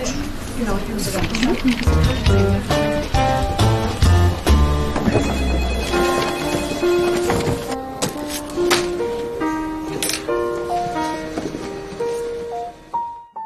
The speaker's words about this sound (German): Ja, der Feueralarm.